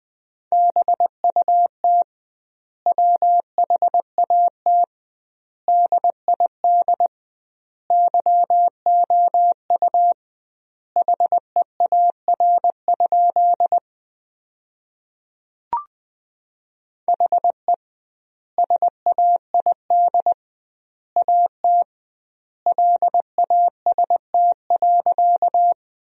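Morse code beeps in a steady mid-pitched tone, sent briskly at 20 words per minute in dots and dashes, forming sentences from the 300 most common words, with doubled word spacing giving long pauses. The signal is clear and loud, with no voices.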